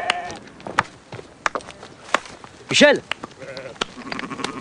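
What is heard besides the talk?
sheep bleating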